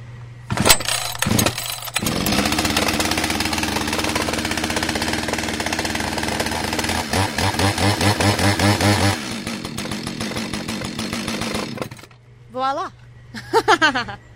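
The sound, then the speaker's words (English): A chainsaw, with its choke pushed down, primed and its decompression valve pressed, is pull-started a couple of times, roars to life and runs loud and steady, revving up and down before cutting off, followed by a few brief voiced sounds. “never try to start a chainsaw or any engine without an adult”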